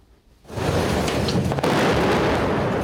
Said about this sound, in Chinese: 爆炸把建筑玻璃都震破，镜头也被震到摇晃。